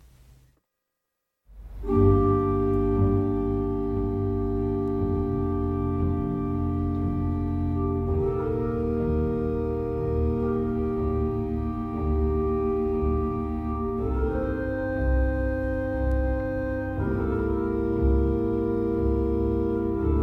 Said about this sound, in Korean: 맨체스터 바이 더 씨에 흘렀던 곡입니다. 알비노니 주제의 현과 오르간을 위한 아다지오, 지단조 함께 듣고 오셨어요.